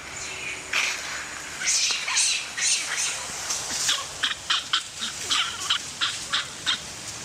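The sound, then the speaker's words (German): A troop of crested macaques, a monkey species living on the Indonesian island of Sulawesi, calls in a rapid series of sharp, high chattering bursts, loud, the rhythm quickening toward the end over a faint background hiss. “Das sind Schopfmakaken. Das ist eine Affenart, die zum Beispiel auf der indonesischen Insel Sulawesi lebt.”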